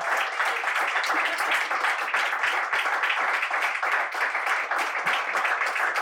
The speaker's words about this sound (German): Deswegen von euch bitte nochmal ganz, ganz großen Applaus für die beiden.